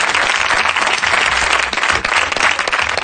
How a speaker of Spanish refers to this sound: ¡Un aplauso, por favor! ¡Un aplauso para esta!